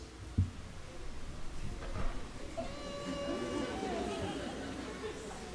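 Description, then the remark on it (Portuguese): Muffled crying, stifled and held back so that no one hears it, swells into a strained, wavering whimper in the second half. A single voice demonstrates it, with no other talk. “E para ninguém escutar meu choro, eu fazia assim.”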